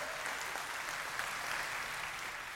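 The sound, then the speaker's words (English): A crowd applauds steadily for a married couple of almost 10 years, a dense, even wash of many hands clapping with no pauses and no voices breaking through, holding at a moderate level throughout. “Would y'all give them a round of applause, by the way?”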